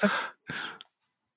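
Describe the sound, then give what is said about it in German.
Two heavy snorting breaths blast into the microphone, each a short noisy huff separated by a brief pause, followed by silence. “So ein Schnaufen.”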